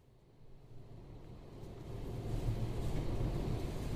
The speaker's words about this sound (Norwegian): Morgenen etter tar jeg toget til Tønsberg.